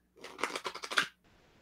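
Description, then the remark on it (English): A tarot card deck is shuffled: a quick, crisp run of papery flutters and clicks lasting about a second, then quiet. No one speaks. “Shuffle it one more time.”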